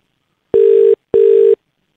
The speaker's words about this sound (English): On today's edition of the Game on Australia podcast, before we get into it, um, need to make a quick phone call.